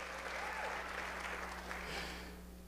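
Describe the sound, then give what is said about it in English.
An audience claps and cheers steadily in praise of God, a dense wash of applause with scattered whoops and voices rising over it, fairly loud and sustained, tapering slightly at the end over a low steady hum. “It's okay to get loud with your praise.”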